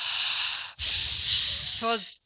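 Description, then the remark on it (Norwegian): A long, steady breathy 'ffff' exhale after a deep belly breath, briefly broken by a pause and then resumed. It is a loud, airy hiss that ends with a short voiced sound. “Så det å ta et skikkelig djupt magedrag langt ned i magen og puste ut lenge på en lang F, f.eks.”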